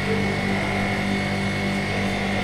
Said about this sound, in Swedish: Om ni undrar vad det är som låter så är det en vinsch.